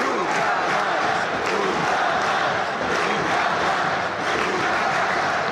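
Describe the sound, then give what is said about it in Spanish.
A huge stadium crowd of thousands of people from Vigo and Coruña chants the protest slogan "nunca más" in unison, a loud, dense roar of voices with steady rhythmic swells, continuing without pause throughout. “Y todo el estadio empezó a gritar, eh, toda la gente, miles y miles de personas de, de Vigo y de Coruña a la vez, en vez de gritar cada uno su grito de tribu, gritan nunca más.”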